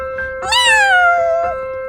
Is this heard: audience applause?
no